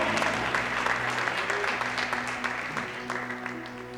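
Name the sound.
audience applauding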